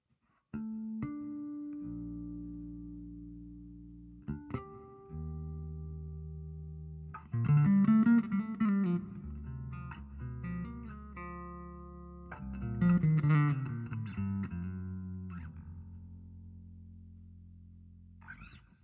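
A solo electric bass guitar plays a slow, gentle Christmas song, with sustained low notes and occasional chords ringing out clearly and nothing else accompanying it.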